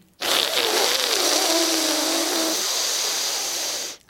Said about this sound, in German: Also Zungenunterseite gegen die Schneidezähne und dann die Zungenunterseite leicht nach vorne wölben und dann seitlich einatmen und dabei das zischende Geräusch machen. Und durch die Nase wieder ausatmen.